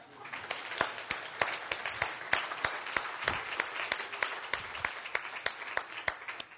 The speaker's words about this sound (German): Wir lieben Kinder in unserer Gemeinde, oder? Hey, geben wir doch mal unseren Kindern einen Applaus.